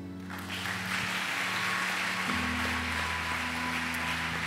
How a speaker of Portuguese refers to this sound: Você recebe essa palavra, aplauda o Senhor.